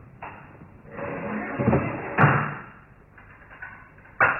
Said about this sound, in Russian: Заперев ее, Адам машинально прячет ключ в карман и защелкивает дверь на задвижку.